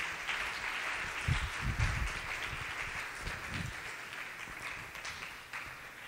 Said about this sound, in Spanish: Denle un aplauso a mis apoyos.